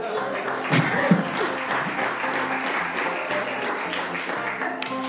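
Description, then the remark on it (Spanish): Steady applause, a dense patter of many hands clapping at an even loudness for about five seconds, with some voices and laughter mixed in underneath. “Porque es que yo te aplaudo tus malditos chistes, madre.”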